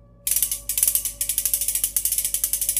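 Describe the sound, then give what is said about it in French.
A wooden ratchet rattle, the kind that announced sick people arriving in villages during Black Death plague epidemics, cranked in quick, steady bursts, producing a loud, dry clattering of rapid clicks after a brief moment of silence, with no voices. “Un bruit qui annonçait pendant les, les épidémies de peste noire les malades qui arrivaient dans les villages.”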